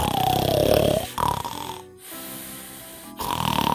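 A voice imitates loud snoring in a few drawn-out, raspy pulls, with a brief pause between them, the last one quieter and more nasal.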